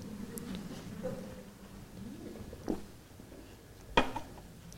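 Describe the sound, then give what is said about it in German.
Someone takes a sip of water from a glass: a soft, muffled stretch of handling, then two sharp, bright clinks of glass, the second one louder, over a low steady background hum. “Oh, das ist ganz lieb, hier noch ein Glas Wasser oder oh, trinke ich doch gleich mal einen Schluck.”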